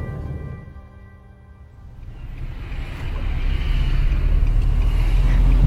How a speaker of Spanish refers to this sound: Sí, ya, estamos llegando, nada más déjame me orillo para poder bajar a que baje seguro. Hay bastante tránsito por aquí.